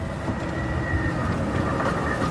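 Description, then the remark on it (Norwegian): A tram rumbles past on a street in central Oslo, a steady, loud rolling drone of wheels on rails with a faint metallic whine, continuous throughout and with no voices. “med trikk, buss, by og bygninger i alle retninger.”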